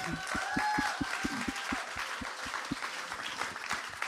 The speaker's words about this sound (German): Und heute Morgen waren wir in Zürich mit unseren Freunden aus Wien, die, wo das, die wo mutig genug sind, das ICF Wien mit starten zu wollen. Applaus euch!